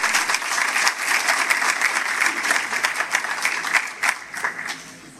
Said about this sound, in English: I've hit play already. The room is in total silence. They start to applaud because they're not really sure what to do.